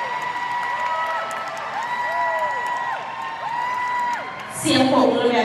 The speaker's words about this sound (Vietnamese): Cái tiếng à, cái tiếng vỗ tay này là chỉ của 21% thôi. Hãy xin tiếng vỗ tay của à, Diamond A70.